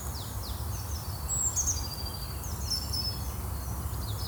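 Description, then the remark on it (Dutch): A small bird chirps repeatedly in short, high, bright notes, faint, over a steady low rumble of background noise; no one speaks. “Oh ja, ik hoor een vogeltje. Ik ga eens letten op die vogeltjes.”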